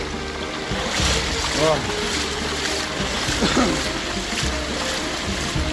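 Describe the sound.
Steady sloshing and splashing of water as someone wades through a flooded street with shin-deep water, with a man's voice briefly speaking over the churning noise.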